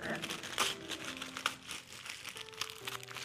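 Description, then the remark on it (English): Continuous crinkling and rustling of tissue paper being handled and pulled apart as a gift is unwrapped, with a few sharper crackles, while faint voices murmur in the background. “Even though it's tissue paper, it's I still got something to open, which I appreciate.”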